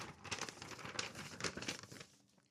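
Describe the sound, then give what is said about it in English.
Dense, continuous crinkling of paper $2 banknotes being handled, with irregular crisp crackles and rustles that stay fairly loud for about two seconds before trailing off. No one speaks. “I'm just gonna I'm gonna have a stack of these under my mattress. Oh, this one is not from Tommy. But let's hope I don't fucking rip this shit up.”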